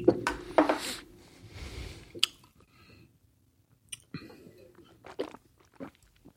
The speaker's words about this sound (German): Mein Gott, dieses Geschmatze, sie, sie werden uns hassen.